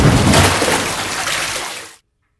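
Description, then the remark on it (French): A loud splash as someone falls through breaking ice into a frozen river, followed by a couple of seconds of churning, sloshing water that fades before cutting off abruptly. No voices. “Mais soudain, la glace cède et Bintou tombe dans l'eau.”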